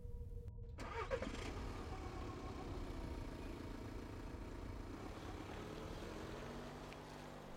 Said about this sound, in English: As soon as she was gone, I started up the engine and drove home.